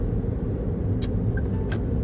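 Steady road rumble of car traffic on a town-centre street fills the whole stretch, with a couple of brief sharp squeaks or clicks rising above it; nobody speaks.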